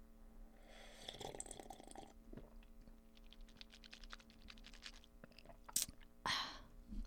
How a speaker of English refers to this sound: little extra ASMR for you. Who fucking swishes hot coffee around their mouth though? Ew. Ew.